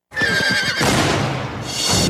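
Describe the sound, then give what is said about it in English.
A horse in the trailer for the DreamWorks film Spirit lets out a loud whinny, a high quavering neigh that breaks into a rough, breathy snort, with a second burst of noise near the end. No one speaks. “It's time to break that horse.”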